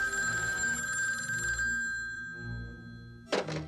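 A telephone bell rings loudly and steadily for about a second and a half, then falls silent; a brief clunk follows near the end, like a receiver being picked up. No voices.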